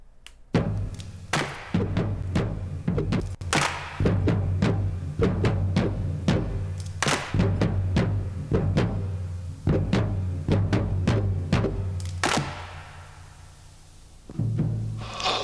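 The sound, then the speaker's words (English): A music track plays steadily, built on deep sustained bass tones and sharp, thumping percussive hits in an irregular rhythm, with a short quieter dip near the end before the beat returns. No voices. “I, I love that track. It's just so different.”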